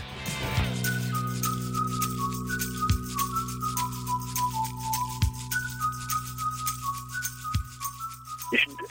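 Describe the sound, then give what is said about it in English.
A thin, whistle-like analog synthesizer tone plays a slow stepping melody over steady low drones, with soft low thuds recurring every couple of seconds and no voices. “That's an analog synthesizer.”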